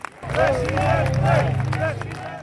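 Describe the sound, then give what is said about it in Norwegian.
A crowd of several thousand at a Spanish election rally roars and chants 'presidente, presidente' in unison as party leader Santiago Abascal takes the stage, many voices rising and falling together over a dense wash of cheering and scattered clapping, loud and sustained throughout. “Når partileder Santiago Abascal går på scenen, roper publikum 'presidente, presidente'.”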